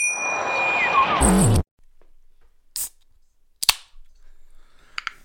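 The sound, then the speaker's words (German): A can of Riesling wine is cracked open with a sharp pop and brief fizzing hiss, followed by a few more quick clicks and snaps. Before it, a short bright musical flourish ends abruptly. No one speaks. “Das war der Sound der Dubedos.”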